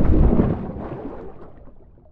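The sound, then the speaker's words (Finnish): A huge boulder falls from the sky and sinks Joosua Ramonen's boat during a race on a lake: one heavy, booming impact with a deep, rumbling roar and splash that gradually fades over about two seconds, with no voices. “Taivaalta tippui valtava kiven lohkare ja upotti Ramosen veneen.”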